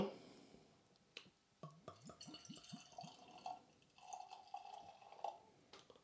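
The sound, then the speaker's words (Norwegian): An English barley wine aged in whisky barrels is poured from a bottle into a glass: a few quick glugs at first, then a steady fizzing stream that fills the glass, with no one talking. “Ta litt mindre i glasset ditt.”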